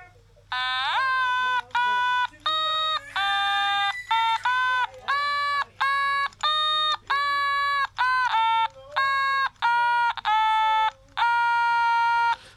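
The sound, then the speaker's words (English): A national anthem melody played in a thin, buzzy electronic tone, its notes held steadily with short breaks between phrases, loud and clear with no voices. “Right, so that was the national anthem.”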